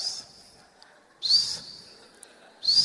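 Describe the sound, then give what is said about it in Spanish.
A voice imitates a hand plane shaving a wooden board: three breathy, whistling hiss strokes spaced about a second apart, fairly loud, with quiet pauses between them. “Así suena cuando se cepillas una tabla.”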